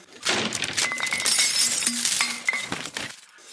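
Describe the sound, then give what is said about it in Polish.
Goods come crashing down from a market stall in a loud tumble of shattering glass and clinking crockery, with pieces clattering and ringing for several seconds before it settles. No voices. “Tak, udaje ci się nie wyjechać, ale operna zostanie, zostaje rzucona lekko na stragan.”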